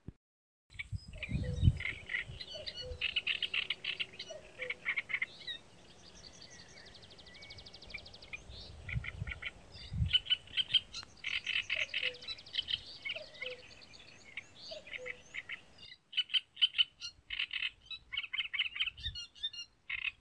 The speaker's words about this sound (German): Das war ein Konzert des Drosselrohr-Sängers in Zusammenarbeit mit dem Kuckuck als Background-Begleiter.